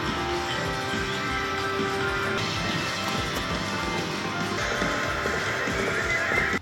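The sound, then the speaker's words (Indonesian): Continuous, steady clip-clop of horse hooves with a horse's neigh rising over the hoofbeats partway through, from a machine-driven horse-riding simulator at a virtual sports venue. No one speaks. “Timar berkuda, horse riding pas nih.”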